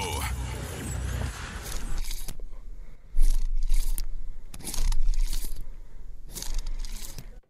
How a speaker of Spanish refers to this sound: El sonido misterioso es un borrador y un plumín para pintarrón.